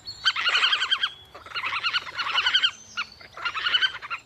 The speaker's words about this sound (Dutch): Ben je nieuwsgierig naar het geluid van de das? Oh ja, ze maken een geluid. Luister maar even. Dankzij mijn ultramicrofoon kun je het perfect horen.